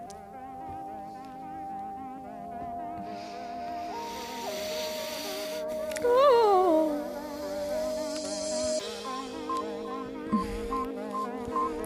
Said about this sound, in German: Ey, diese Fliege, die hier die ganze Zeit rumfliegt, macht mich irre. Ist auch so eine hektische, die fliegt so. Wii, wii, wii, wii, wii, wii, wii. Ui, ui, ui, ui, ui.